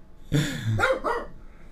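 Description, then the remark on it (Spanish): A pet dog barks, a quick run of two or three rough, throaty barks blending together, with no talking over them. “Sí, también quiere participar, le dio por ladrar ahorita, pero ya, ya ahorita ya se calmó.”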